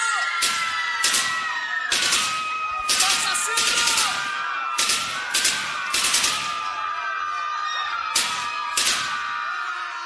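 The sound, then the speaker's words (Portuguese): A platoon of soldiers fires a rifle volley into a crowd of protesters, a series of sharp, loud cracks in irregular clusters, about a dozen shots, over a steady background of crowd noise and voices. “O pilotão realizou uma descarga de fuzil contra a multidão, deixando, segundo números oficiais, quatro mortos e vários feridos.”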